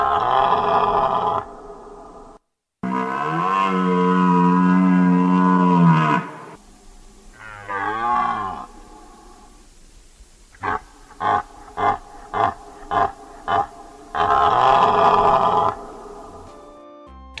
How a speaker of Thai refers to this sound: เสียงนี้เป็นเสียงของกวางนะคะ กวางเนี่ยเป็นสัตว์เลี้ยงลูกด้วยนม มีลักษณะขนยาวหยาบค่ะ สีน้ำตาลตัวผู้เนี่ยมีเขาเป็นแขนงผลัดเขาปีละหนึ่งครั้งค่ะ